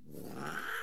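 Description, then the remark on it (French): A cat being looked after for its owner lets out a single drawn-out, strained yowl, fairly loud, sustained for under a second with no talking over it. “Tu, tu, tu discutes avec le chat ou tu m'appelles Non, désolé.”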